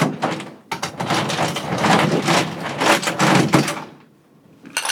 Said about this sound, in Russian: Вот теперь вот лед насыпай. В стакан. В стакан.